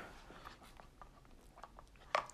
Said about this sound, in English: Let me get one more sip of my Mountain Dew.